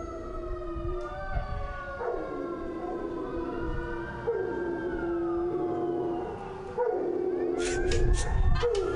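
A dog howls in long, wavering tones over a droning siren-like wail, the pitch sliding up and down throughout, with a short burst of higher yelps near the end.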